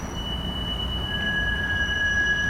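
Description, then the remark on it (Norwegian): A tram rumbles steadily along its rails, with a low continuous roar and thin, sustained metallic squeals of the wheels rising above it, loud, no voices. “Dere på trikken?”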